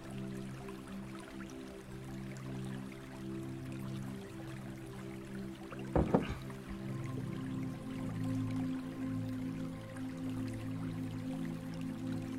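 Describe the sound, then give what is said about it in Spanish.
Someone takes a quick drink of water, with a single short gulp or clunk midway, over a steady low electrical hum and no talking. “Y como te venía comentando, déjame tomar agua porque ya se me secó la boca.”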